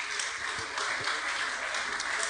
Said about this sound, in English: Very, very light applause because people don't want to make it a competition between with a double mastectomy, lady.